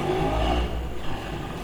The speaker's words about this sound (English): Those loud motorcycles.